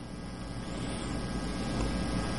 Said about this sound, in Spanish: está entrando un sonido raro. Está, eh, se está interrumpiendo su conversación con un sonido que, como, un eco.